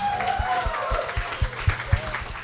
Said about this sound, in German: Äh, hier bei unseren Freunden der 12 Grad Eda-Loge auch nochmal Danke an euch. Ein Applaus für die.